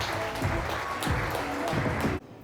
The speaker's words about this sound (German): Und da jetzt einen riesengroßen Applaus für unseren heutigen Sprecher